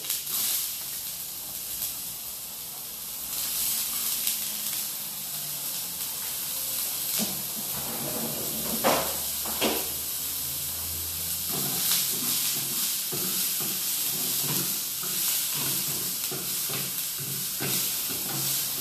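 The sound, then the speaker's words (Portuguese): Onions sizzle steadily in a hot pan as they turn golden, a constant bright hiss with occasional crackles and scraping clatter as they're stirred, fairly loud, with no talking. “Eu amo cheiro de cebola dourada.”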